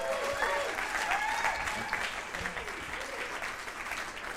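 An audience claps steadily, a dense wash of many hands, with a few indistinct voices and whoops mixed in over the applause.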